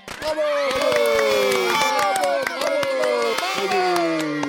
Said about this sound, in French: Les animaux massés sur les gradins commencèrent à crier de joie en voyant Zoé arriver. Certains lancèrent des pétards, d'autres soufflaient dans des trompettes.